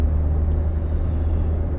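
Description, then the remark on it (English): Steady, loud low-frequency road rumble from inside a car in traffic, westbound on the 10 freeway at about 8:45 a.m., a continuous drone of engine and tire noise with no talking. “I am obviously in traffic, which is the purpose of these traffic talks, right?”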